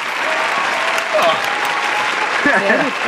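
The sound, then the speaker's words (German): Dense, steady applause from a crowd fills the scene at a moderate level, with a few voices briefly calling out over the clapping near the end. “Von mir gibt es keinen Applaus.”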